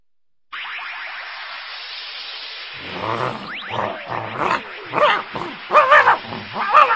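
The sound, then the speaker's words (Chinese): A dog, the golden-furred Xiaotian Dog of Yang Jian in a Chinese audio drama, barks in a quick series of sharp, rough yelps that grow louder over a steady background hiss, following a few seconds of hiss alone. “呀儿郎啊是杨戬，方天画戟三只眼，金毛徒弟哮天犬，帅气晃瞎你的眼。”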